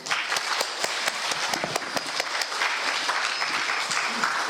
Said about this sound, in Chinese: 下面我们用热烈的掌声有请李海老师。